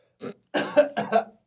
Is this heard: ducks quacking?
no